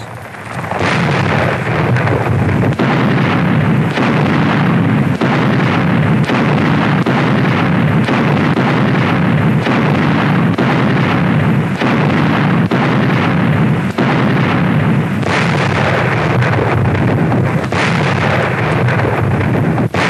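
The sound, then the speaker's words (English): Russian artillerymen fire point blank at the last German stronghold as a battle draws to a close: heavy booms strike every couple of seconds over a constant loud, roaring rumble of battle, with no voices. “Russian artillerymen fire point blank at the last stronghold of Germany's doomed battalion.”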